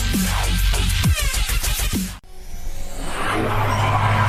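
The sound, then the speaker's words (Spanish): Loud car engines rev with rising and falling roars for a couple of seconds, marking the return from a break on the automotive show Factor Autos, then after an abrupt cut a steady, building rush of engine noise follows, with no voices. “Los motores se revolucionan.”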